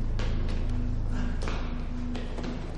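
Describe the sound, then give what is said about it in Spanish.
Quick, fairly regular footfalls thud and tap one after another as someone runs up a flight of stairs, over a steady low mechanical hum that fills the background. “Entra y sube las escaleras corriendo.”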